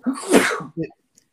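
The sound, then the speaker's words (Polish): A single loud sneeze from a member of parliament during a debate bursts out with a broad hissing blast, followed by a brief voiced catch or sniff, then quiet. “Na zdrowie, panie pośle.”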